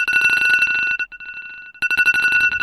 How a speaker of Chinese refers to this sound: 我每次听到这个闹钟，都有一种法海要收了我的感觉，特别吓人啊，心头一紧。